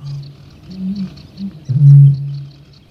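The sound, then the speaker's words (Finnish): A Eurasian bittern's deep, foghorn-like boom: a low hollow hum swells into one loud resonant blast near the end, then fades, with no voices present. “Kaulushaikaran kumea, sumutorvinen puhallus.”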